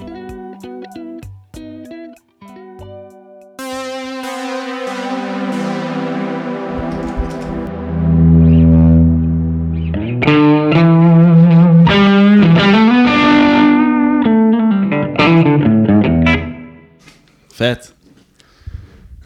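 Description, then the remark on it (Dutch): An electric guitar played through an effects pedalboard into an amp with a Boss Tube Expander: a few short plucked notes, then loud, sustained distorted chords and bends that swell and ring with a chorus-like shimmer, ending in scattered clicks. “Oké, eh, dus nu heb je eventjes eh, je, je, pedalboard aangesloten.”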